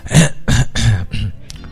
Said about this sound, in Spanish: Perdón que me dio, me dio un poco de tos.